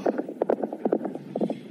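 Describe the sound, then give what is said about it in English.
A horse's hooves clip-clop across a hard surface in quick, uneven clusters of hollow knocks as the outlaw Hateful Jake rides off, a steady trotting rhythm with no voices. “And when he was done, he got back on his horse.”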